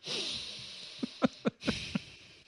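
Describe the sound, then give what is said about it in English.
A voice imitates exaggerated sniffing, mimicking over-the-top soap opera acting: a breathy inhale followed by about five quick, sharp sniffs in a rapid, uneven series, with no words spoken. “you know, you're turning away from somebody who's talking to you and you're just just really sniffing your own fart.”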